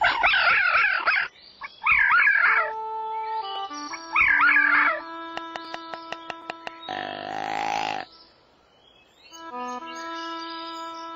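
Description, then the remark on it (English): A fox yelps and howls in several short, wavering, loud bursts, set against steady electronic tones, a quick run of sharp clicks, and a brief rumbling buzz. “The fox lives in the woods too.”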